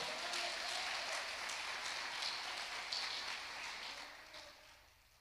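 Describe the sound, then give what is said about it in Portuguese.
An audience applauds God at the preacher's request, a dense crackle of many hands clapping at once with no voices on top, holding level before gradually thinning and fading out toward the end. “Em nome de Jesus, aplauda Ele, por favor.”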